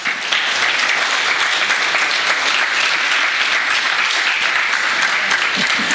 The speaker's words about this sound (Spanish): Dele palmas, hermano, dele palmas.